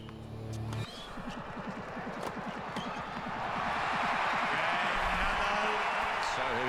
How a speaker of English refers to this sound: Crowd going nuts for Nadal.